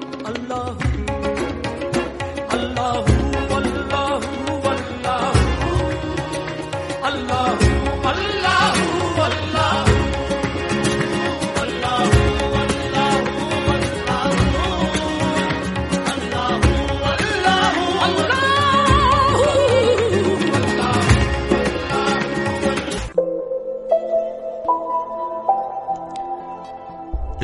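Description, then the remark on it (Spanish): A full, dense stretch of flamenco qawwali (flamenco Sufi) fusion music recorded by flamenco singers, with ornate, gliding vocal lines over layered instruments, loud and steady, before it drops abruptly to a sparser, quieter instrumental passage near the end. “Y otros cantadores flamencos también han grabado este flamenco kawalí o flamenco sufí que suena así.”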